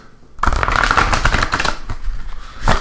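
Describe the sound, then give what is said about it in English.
A deck of playing cards being shuffled for a card reading, a quick rapid riffle of papery flutters lasting a couple of seconds, ending with a final soft snap as the cards settle. “Give it another shuffle.”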